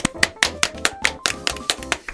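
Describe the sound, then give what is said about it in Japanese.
Quick, steady hand clapping, roughly ten sharp claps in an even rhythm, fairly loud, with no voices over it. “なんで拍手”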